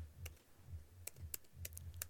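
Slow, uneven keystrokes on a computer keyboard, typed with one hand to open an email inbox, about seven sharp clicks spread irregularly over two seconds, fairly quiet over a low background hum, with no talking.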